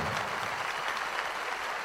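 A festival crowd applauds steadily, a dense, even wash of clapping that holds at the same loud level throughout with no voices standing out.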